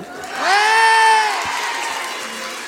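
A crowd at a radio station's anniversary concert claps and cheers, with one loud rising whoop held for about a second above a steady wash of applause that carries on after it fades.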